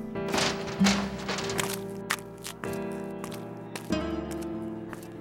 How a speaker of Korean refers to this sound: 이때 식당 문이 열리며 들어오는 서울에서 왔던 전학생들 3명.